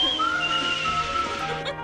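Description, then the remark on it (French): A man whistles a tune in long, sustained notes that step between pitches, over a steady, dense background noise, with no talking. “Il sifflait le bougre, je vous l'avais bien dit.”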